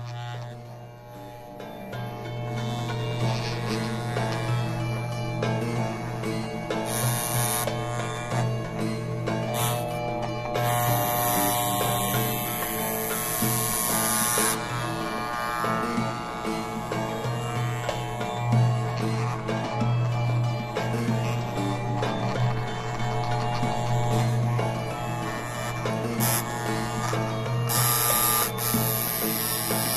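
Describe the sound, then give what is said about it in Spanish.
Electric hair clippers buzz steadily for the whole stretch as they cut the sides of someone's hair, their motor drone shifting with short, brighter rasping bursts as the blades run through hair. No one speaks. “Y empezó a cortar con máquina”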